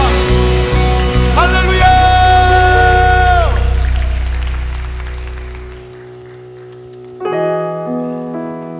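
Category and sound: crowd, audience applauding in church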